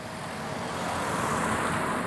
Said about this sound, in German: Also es äh, ist gerade noch eine wilde Mischung. Zwei Familien, die immer noch äh, ihren Kofferraum einpacken und Autos, die an uns vorbeifahren.